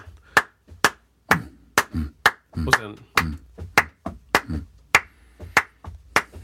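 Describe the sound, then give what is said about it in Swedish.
A steady body-percussion rhythm of sharp hand claps mixed with heavier thumping foot stamps, repeating about twice a second, with a person speaking briefly between the beats. The feet stamp the third beat and the hands clap the fourth. “Och sen så byter man så man stampar trean i fötterna och klappar fyran i händerna.”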